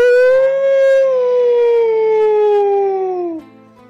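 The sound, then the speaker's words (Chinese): A single long wolf howl, loud and tonal, holding a steady mid pitch that slowly sinks before cutting off near the end, with no talking alongside. “像狼一样嚎叫”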